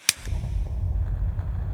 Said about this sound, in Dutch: De jassertak klapt drie keer in zijn handen.